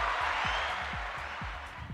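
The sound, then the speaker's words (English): A dense, steady wash of crowd applause fills the whole moment, with a low rhythmic thump pulsing underneath about twice a second. No one speaks. “The crowd loves you, Summer.”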